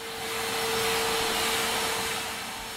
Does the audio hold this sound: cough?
no